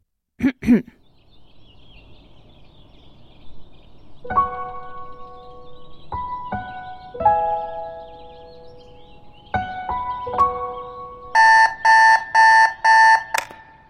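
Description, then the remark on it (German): An alarm clock goes off at six thirty with a sequence of electronic tones stepping in pitch, then breaks into four rapid, loud bursts of pulsing beeps, with no talking. “Sechs Uhr dreißig. Wecker klingelt, niemand muss aufstehen.”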